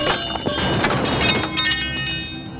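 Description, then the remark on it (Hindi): An iron rod, swung around blindly in the dark, crashes into metal utensils lying on the ground, setting off a loud burst of rapid clanks and clatters with bright ringing that lingers and fades over a couple of seconds. “वो हवा में इधर उधर सरिया चलाने लगा तभी सरिया जमीन पर पड़े बर्तनों से टकराया और शोर की आवाज हुई”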